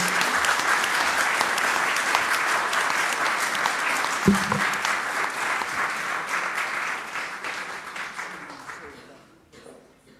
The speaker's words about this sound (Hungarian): Kérem, tapsolják meg